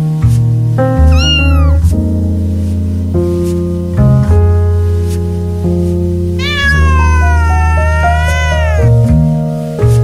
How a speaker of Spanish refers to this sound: El gato César.